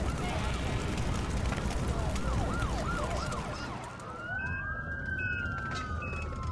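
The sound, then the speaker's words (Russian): A fire engine siren wails over a steady traffic rumble, first in quick rising-and-falling cycles, then stretching into a long, sustained high tone, loud, as the fire engine arrives at a burning building. “Через 20 минут приехала пожарная машина.”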